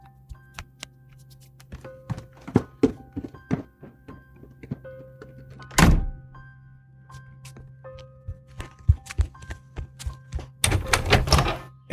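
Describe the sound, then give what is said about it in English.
Dull, hollow knocks from a police officer sound on a door in irregular clusters over a low steady hum, with a couple of much louder, heavier bangs standing out among the lighter raps. No one speaks. “You'd better be the one to answer that door.”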